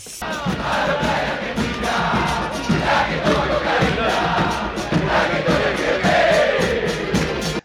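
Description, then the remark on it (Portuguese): A large crowd of football fans chanting in unison, a loud, steady roar of many voices with rising and falling sung phrases, continuous for several seconds with no individual speech. “Só deixar um recadinho para vocês que estão ouvindo aí, que ao longo do programa a gente tocou algumas alguns gritos de torcida, né?”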